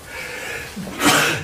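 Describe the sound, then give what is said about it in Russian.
A single loud sneeze, with a short rising intake of breath followed by a sharp, breathy burst, heard on its own without talk. “Сейчас чихну.”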